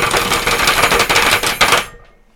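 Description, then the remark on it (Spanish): A rapid drum roll tapped out on a tabletop, a dense flurry of sharp, clattering knocks that swells briefly, then stops and leaves a short fading tail. No one speaks. “Redoble, eh, tambores. por favor.”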